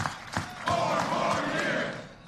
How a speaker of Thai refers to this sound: ครับก็ได้ยินเสียงเชียร์นะ